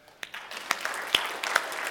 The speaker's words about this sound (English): And I really would love for us to give them a real um, healthy round of applause. Can we just do that?